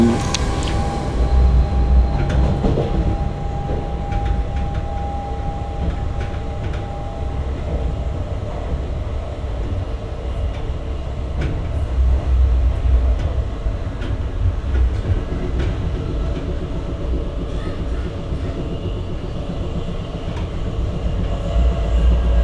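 A train rolls steadily along its rails, a continuous loud low rumble with rattling and faint rhythmic clatter of wheels, with no voices.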